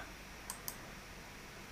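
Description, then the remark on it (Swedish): Two quick, crisp computer mouse clicks about a fifth of a second apart, clicking on an S on screen, sharp against a steady low background hiss, with no talking. “Och eh, klickar man på S här”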